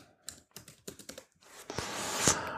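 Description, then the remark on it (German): Quick, uneven clicking of keys on a computer keyboard, with a few distinct taps followed by a denser, louder flurry of keystrokes toward the end; no voices. “Also, das tippe ich jetzt natürlich.”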